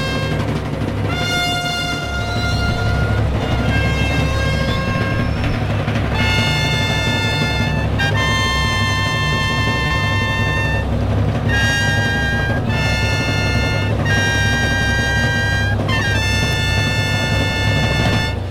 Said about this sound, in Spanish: Atención, ahí están ya los clarines y timbales. Cuando aparecen los caballos de los alguaciles.